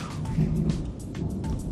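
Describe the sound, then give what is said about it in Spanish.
A low, steady rumble of thunder from an approaching storm rolls beneath a hiss of rain, with a few brief crackles near the surface. No one speaks. “y ahí viene la tormenta, así que nos aceleramos nosotros.”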